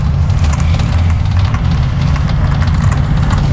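A steady, loud low-pitched engine rumble fills the space, heard from inside a moving bus, with faint rattles and no voices.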